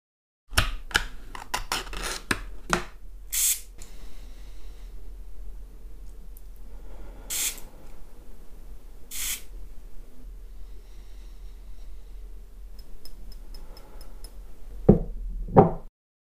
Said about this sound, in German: Aber heute will ich gar nicht so viel davon erzählen, sondern euch mal ja, zeigen, wie sich das so anhört. Also das Gesichtstonikum klärend. Let's go!